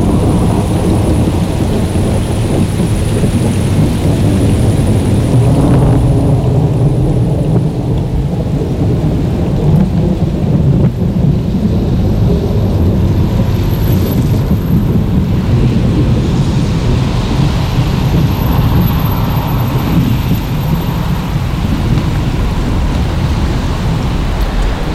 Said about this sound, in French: c'était son seul orage, gros gros coup de tonnerre.